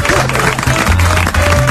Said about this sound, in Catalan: Veus? I ara aplaudim tots.